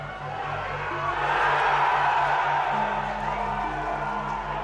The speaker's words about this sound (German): Nachdem du dich in Windeseile umgezogen hast, läufst du zusammen mit deinem Team auf das Fußballfeld. Lauter Jubel empfängt euch.